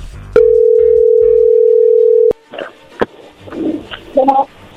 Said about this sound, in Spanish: bueno, a ver, allí entró la llamada, no hagan ruido.